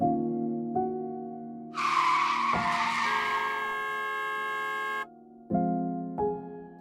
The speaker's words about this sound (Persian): از آن سوی پنجره صدای ترمز پرسر و صدای اتوبوسی و بوغ ماشینی به گوشم می رسد.